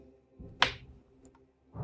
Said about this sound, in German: Du nimmst dir einen 20-seitigen Würfel. Äh, Habe ich. Du würfelst ihn.